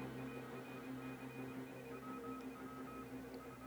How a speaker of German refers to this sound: Dieses ja, Morse-Signal. Morse ja, ja, das, das kenne ich so. Hier fängt das normalerweise erst an.